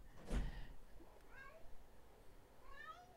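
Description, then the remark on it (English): A cat meows several times: a loud cry at the start, then two softer, higher-pitched meows spaced about a second apart, with faint room noise underneath and no talking. “Come on, you better come in here, cat.”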